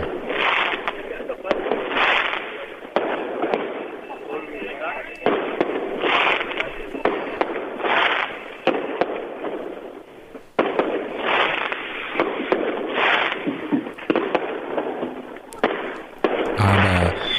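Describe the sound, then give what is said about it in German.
Rockets and firecrackers, set off by a crowd standing outside prison walls to make contact with the prisoners, bang and crackle outdoors in a loud, continuous barrage of repeated bursts, with voices audible faintly in the background. “Eben nicht nur mit Raketen und Böllern wurde versucht, eben Kontakt zu den Gefangenen aufzunehmen äh, aufzubauen oder eben zu zeigen, dass wir dort vor den Mauern stehen.”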